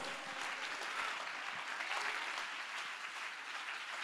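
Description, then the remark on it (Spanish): An audience applauds at a preacher's call during a sermon, a dense, even wash of many hands clapping that holds at a constant level for the whole stretch, with no voices rising above it. “Si hay alguien aquí que lo crea, que le dé un aplauso.”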